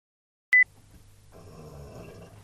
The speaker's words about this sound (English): like when sometimes when I do burp, that's like pure release of gas. It sounds like a dinosaur noise.